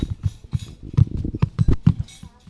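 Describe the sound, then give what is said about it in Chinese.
Many small children of a kindergarten's youngest class walk across the floor, footsteps pattering in a quick, uneven run of soft low thumps with light scuffs, overlapping with no steady rhythm. No one speaks. “这是小班走路的声音。”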